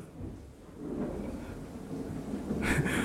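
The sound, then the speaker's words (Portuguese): A deep rolling rumble of thunder swells over a few seconds, low and heavy, growing slightly louder with a brief brighter crackle near the end; no one speaks. “Ai, trovão agora me assustou.”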